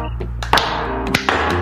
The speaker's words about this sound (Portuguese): Aí, bateu o martelo.